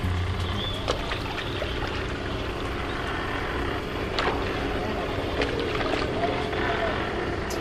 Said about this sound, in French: dans le rôle du vent, de la mer et des oiseaux, les bruitages de Bertrand Amiel.